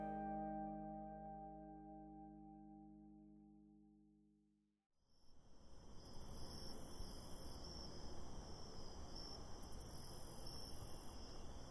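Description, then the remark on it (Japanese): A sustained tone fades out, then a dense chorus of bell crickets and field crickets takes over, trilling and chirping steadily and fairly loud, with no voices present. “虫の音もいいですねスズムシコオロギの声かなという、はいまあ、自然界のオーケストラ、えー、どこから声がするんだろう音がするんだろうってそんな、えー、窓を開けてねそんな虫の音が聞こえると秋だなーなんて思いますよね。”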